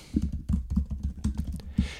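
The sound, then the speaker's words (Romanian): Rapid typing on a computer keyboard as someone writes to block users posting Russian propaganda on a Facebook page, a quick irregular run of crisp key clicks with brief pauses between bursts, no voices. “Tocmai, uh, iertați-mă, tocmai trebuie să scriu ceva să mai blochez pe câte unul care mai intră cu propaganda rusă la mine pe pagina de Facebook în timpul emisiunii, mai enervează.”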